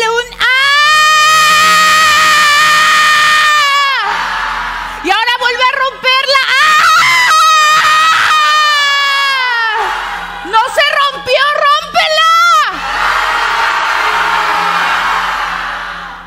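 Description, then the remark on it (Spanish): A group of people screams loudly together on an instructor's cue after deep breaths, in long sustained bursts, three main waves separated by brief breaths, the voices high-pitched, strained and overlapping, ending in a wash of shrieks. “Y gritamos, fuera. Inhala profundo. Fuera. Inhala profundo. Fuera. Ahora grita”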